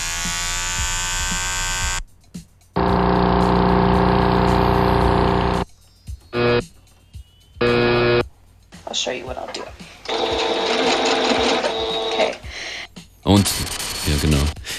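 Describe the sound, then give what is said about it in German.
A sewing machine runs in several loud bursts of steady motor whirring, some long and some brief, separated by short pauses and mixed with other buzzing electric device sounds, recorded in a studio. “Das Nähmaschinen-Tutorial war da auch mittendrin und bin gespannt, äh, wie er das verarbeitet hat.”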